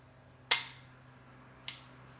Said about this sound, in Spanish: Algo que tiene esta pistola es que el recorrido del gatillo sí es un poco amplio. Miren cuánto tarda. Y sí se requiere algo de presión para accionarla.